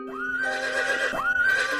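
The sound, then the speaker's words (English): A horse neighs twice in quick succession, each call a loud, shrill whinny that climbs sharply in pitch and then wavers. There is no talking. “I see a blue horse looking at me.”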